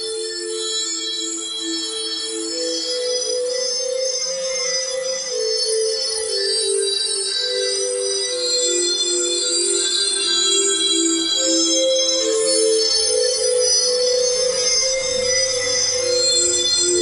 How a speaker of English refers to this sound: When you hear the trippy music, you know what time it is. It's time for.